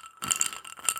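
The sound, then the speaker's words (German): Ice cubes clink and rattle against the sides of a glass holding only water, in a few quick, bright bursts, clear with no talking. “Da ist jetzt einfach nur Wasser drin und Eiswürfel.”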